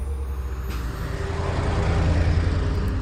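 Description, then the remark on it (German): A heavy truck delivering green hydrogen trailers to a compressor station a few hundred meters outside Hohenwart for a field trial rumbles, a deep steady engine drone with road noise that swells louder halfway through. No one speaks. “Beim Feldversuch in Hohenwart wird der grüne Wasserstoff übrigens per Lkw angeliefert.”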